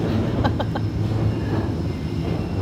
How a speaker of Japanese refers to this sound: あちょっと電車来てうるさいかな どう通り過ぎるのを待とうかしらちょうどね電車のレールの真下で撮っております環境音ということでお許しください